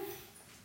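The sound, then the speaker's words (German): The cat Esmeralda, wanting to come in, gives a short, high whine at the door, one brief plaintive cry at the start that quickly fades into a quiet background. No one speaks. “Mama, warte, Esmeralda will rein, das ist meine Katze.”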